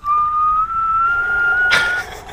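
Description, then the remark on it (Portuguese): A voice imitates a blowtorch with the mouth, blowing on a wound to cauterize it, with a steady, high whistling blow that slowly rises in pitch over about two seconds, ending in a brief breathy hiss. “Eu vou olhar para ele, e vou fazer um sopro, vou fazer assim.”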